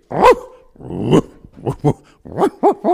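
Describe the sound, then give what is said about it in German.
A person imitates a barking dog, letting out about seven loud, rough barks in an uneven rhythm, starting with longer growly yelps and ending in quicker, sharper ones. “Du kannst also super bellen.”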